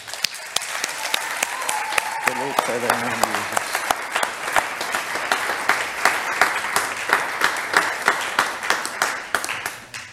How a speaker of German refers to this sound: Möchten wir nochmal Jesus einen Applaus geben?